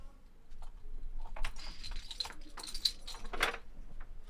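A bunch of keys jangles in short metallic bursts as a woman pulls out her key ring in front of a door, bright clinking spread over a few seconds with a soft hum underneath.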